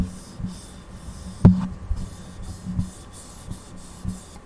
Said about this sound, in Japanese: ね本体を触る音はこんなふうに入ります